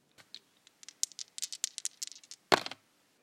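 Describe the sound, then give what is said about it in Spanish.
Dice rattle in a quick series of light, sharp clicks, then land with a louder clattering burst and a few settling taps. No one speaks. “Es momento de lanzar los dados”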